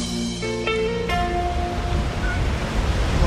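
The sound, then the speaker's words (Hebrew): A steady broad wash of surf rolls onto a shore, building slightly toward the end, with a few faint musical tones ringing briefly at the start before fading away. “איזה ים, מה זה?”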